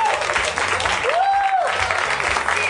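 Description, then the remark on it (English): Steady, loud audience applause at a live show, with dense clapping that fills the whole stretch, while a faint rising-and-falling whistle-like tone and some voices cut through the crowd noise. “Keep your applause going if you would for Katie Levine, our audio recorder, Zach McKeever, our tech, Emily Gordon, our producer of the live show, Daniel Kramer, program director, Dustin Marshall, podcast producer,”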